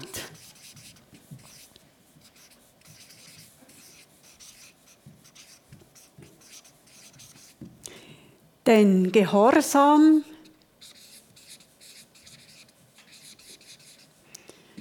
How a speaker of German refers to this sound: Also ich schreibe jetzt die drei Abschnitte hier noch auf, dass die ein bisschen vor Augen sind.